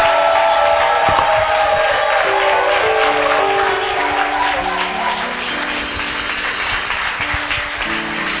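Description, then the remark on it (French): A church audience, standing, cheers and acclaims the name of the Lord loudly and steadily, a dense mass of shouting voices with whoops and scattered clapping filling the whole stretch without a break. “On va se mettre debout, on va acclamer le nom du Seigneur.”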